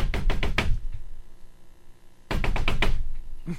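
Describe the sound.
A man knocks on a door in two quick bursts of sharp knocking, about five raps each, separated by a pause of more than a second; the knocks are loud, with nothing else heard.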